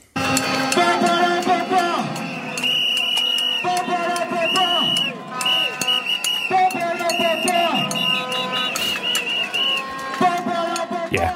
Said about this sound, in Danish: Det her det er lyden af generalstrækken og demonstrationerne i Colombia her tirsdag den 21. januar. Vi har jo fuldt bølgerne af demonstrationer over hele verden, øh, og de går stadig på gaden i Colombia.